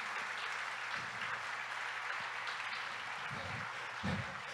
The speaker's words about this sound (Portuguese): Dá uma salva de palmas, Jesus, se você crê nisso.